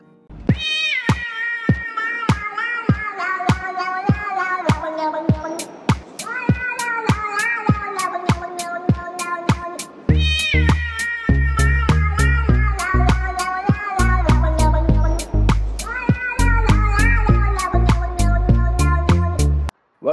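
A musical jingle built from repeated meowing cats set to a rhythmic beat, with sharp percussive clicks throughout and a deep bassline joining halfway, loud and upfront with no talking.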